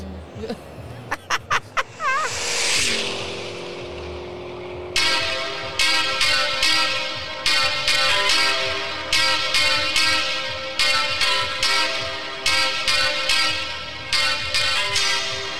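A homemade drill beat plays back loudly, opening with a few chirpy, warbling synth tones before settling into steady, repeating bursts of bright, buzzy chords over a low pulse.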